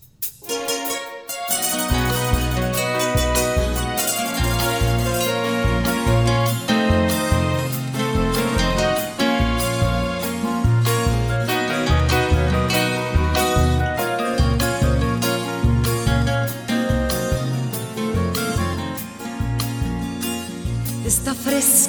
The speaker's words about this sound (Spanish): vamos a escuchar la segunda canción cafetera de hoy, de la cantante colombiana